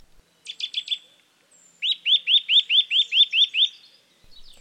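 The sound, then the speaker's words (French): A Eurasian nuthatch sings clear, loud whistles: a quick burst of four rapid notes, then a steady series of about nine evenly spaced rising whistles, with faint calls trailing off. “Son chant est variable mais toujours sonore et constitué d'une lente série de sifflements clairs, montants, descendants ou en trilles rapides.”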